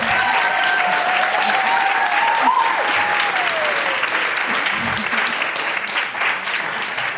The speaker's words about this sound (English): I'd like to give a large round of applause one more time for our panel.